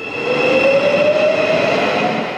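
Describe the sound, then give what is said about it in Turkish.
The Marmaray commuter train rolls past on its first run, a steady loud rumble of the cars with an electric motor whine rising slowly in pitch throughout, no voices. “Marmaray'dan ilk tren 20 dakikada geçti.”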